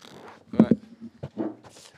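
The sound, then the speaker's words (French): Several short chair scrapes and squeaks against the floor, overlapping as people shift and stand up, moderately loud, with faint voices. “Euh, avec des beaux bruits de chaises.”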